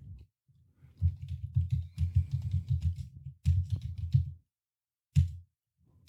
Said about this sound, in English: I appreciate you saying how how captivating and sexy my typing is, but I already know it. So just save your breath and let me get to the typing.